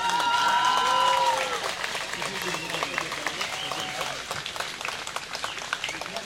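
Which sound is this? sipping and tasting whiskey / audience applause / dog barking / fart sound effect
audience applause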